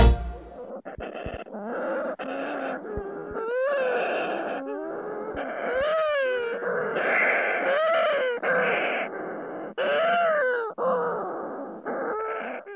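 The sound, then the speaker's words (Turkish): Shearwaters call continuously in a dense, overlapping chorus of eerie, wavering moans and cries, rising and falling in pitch, loud throughout with no one speaking. “Yelkovan kuşları”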